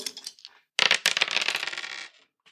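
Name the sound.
dice being rolled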